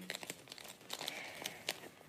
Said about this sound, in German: Das Papier ist jetzt schon so dick, dass man es gar nicht mehr richtig falten kann. Aber mit viel Kraft bekommt man es noch hin.